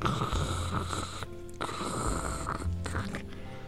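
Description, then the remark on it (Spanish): A voice imitates nails scratching a chalkboard, making harsh, rasping screeches in two or three sustained bursts with brief pauses, loud. “Y cuando voy como a media cuadra, por la calle de aquí de, que atraviesa, empiezo a escuchar un sonido como, como de cuando arañan un pizarrón.”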